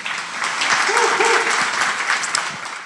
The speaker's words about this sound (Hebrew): שני השותפים העיקרים שלנו לאירוע הזה, או לסדרה כולה, שזה גם פועלים הייטק, תנו להם כפיים, הם פה, הם שומעים.